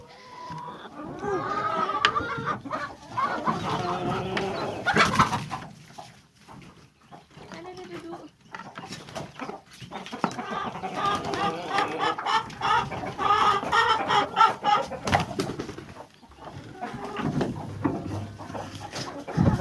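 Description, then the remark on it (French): Hens cluck busily with a rooster among them as their coop hatch and big door are opened after grain is put out, a steady overlapping barnyard chatter filling the whole stretch, while a person speaks now and then over the flock. “Salut les filles On va ouvrir la grande porte aussi. Oh, il y a le coq.”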